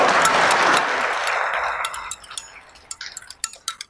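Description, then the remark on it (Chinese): Audience applause before a Shandong kuaishu performance of the traditional piece 'Wu Song Fights the Tiger', a dense wash of clapping that fades over the first two seconds, followed by the performer's clapper boards tapping out a quick rhythm of sharp, evenly spaced clicks on their own. “哎，好，大家一鼓掌，我打板就唱，好不好？”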